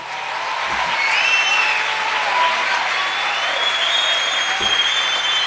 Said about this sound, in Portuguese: Queria que vocês recebessem esses amigos aqui com uma super salva de palmas.